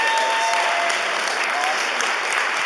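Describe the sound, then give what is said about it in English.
An audience claps for a panel, a steady, dense wash of many hands applauding at once, loud and sustained throughout, with no one speaking over it. “Can we give our panel a hand?”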